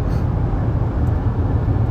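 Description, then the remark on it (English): A steady, low vehicle rumble fills the whole stretch, a constant droning road noise with no breaks, from a car driving down the interstate. “We're actually going down the interstate right now”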